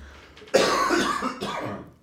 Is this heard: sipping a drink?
no